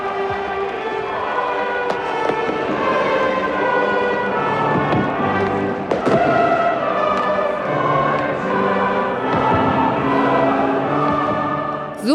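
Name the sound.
fireworks exploding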